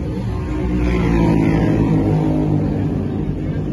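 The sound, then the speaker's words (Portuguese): A racing motorcycle engine, on a bike about to go out for Superbike practice, runs loud, its throaty harmonic drone holding steady with a slight swell in pitch, like a sustained rev, for a few seconds. “Moto do, Danilo do Danilo Petrucci de perto”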